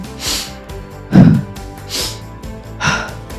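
Forceful, rhythmic breathing, about four loud in-and-out breaths in quick succession, as in an energizing breathwork exercise done while shaking and moving the body, over a soft, steady musical backdrop.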